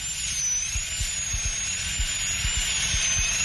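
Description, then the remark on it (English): A dental drill whines at a steady high pitch over a constant airy hiss as a dentist drills out an old filling in a tooth, running continuously, with faint low knocks underneath. “I'm drilling out the old filling now.”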